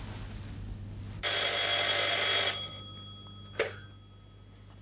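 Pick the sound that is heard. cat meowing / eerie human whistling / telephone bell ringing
telephone bell ringing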